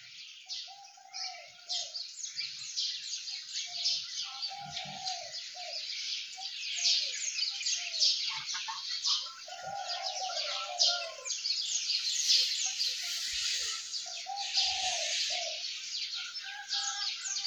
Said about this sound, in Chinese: 过了一会儿，天蒙蒙亮了，小鸟也起床了。听，小鸟在叽叽喳喳的叫。